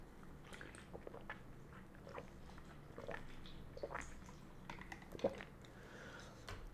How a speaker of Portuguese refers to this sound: Dá um gole aqui na minha água